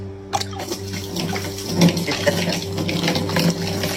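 Bud Light beer pours out in a steady, splashing stream onto the ground as part of a boycott, continuous for a few seconds over a low electrical hum, with no one speaking.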